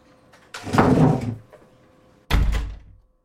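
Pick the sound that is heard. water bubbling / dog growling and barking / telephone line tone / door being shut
door being shut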